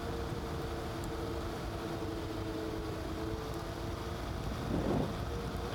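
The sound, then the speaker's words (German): A steady engine drone with a low, continuous hum is buffeted by heavy wind noise rushing over the microphone on a moving motorcycle ridden fairly fast through the landscape, with a brief louder gust near the end. “Leute, wie immer, der Hinweis, alle Spotify, iTunes-Hörer, ich fahre Motorrad.”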